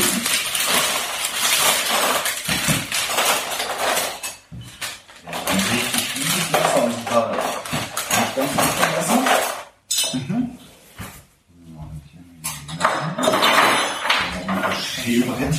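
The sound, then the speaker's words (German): Kitchen utensils clink and scrape against dishes almost continuously, fairly loud, as sweet potatoes are peeled, with people talking over the clatter and a couple of brief lulls. “So, dann müssen wir als nächstes die Süßkartoffeln schälen.”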